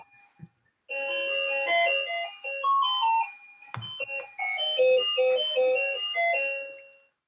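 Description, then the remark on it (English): A cuckoo clock chimes out a bright, tinkling melody, a steady run of high, bell-like notes lasting about six seconds, with a soft knock partway through and no voices. “I forgot y'all had a cuckoo clock.”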